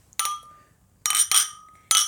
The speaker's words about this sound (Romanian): Hai să, Hai să mai ciocnim o dată.